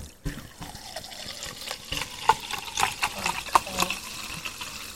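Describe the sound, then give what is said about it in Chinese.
Sparkling water pours and fizzes, a steady bubbly hiss dotted with sharp little crackles and pops throughout, fairly quiet, with no one speaking. “我要先来，我听听看气泡水声，我不出声。”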